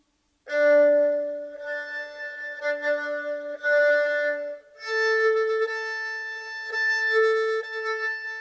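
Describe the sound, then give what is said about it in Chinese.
An erhu bowed with a thin, hollow, weak tone: a long sustained low note, then a higher sustained note, steady and unaccompanied, with no talking. “请听声音发虚。”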